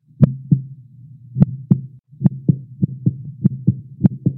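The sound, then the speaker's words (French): A heartbeat of paired lub-dub thumps, low and punchy over a soft steady hum, starting slowly and quickening after the first few beats into a faster, even rhythm. No voices are heard. “L'accélération du rythme cardiaque et de la pression artérielle”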